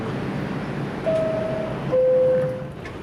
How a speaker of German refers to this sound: Dazu muss ich natürlich erstmal in die U-Bahn einsteigen und das ist natürlich relativ äh, unangenehm und awkward, mit einem Mikrofon in eine U-Bahn einzusteigen und einfach reinzureden.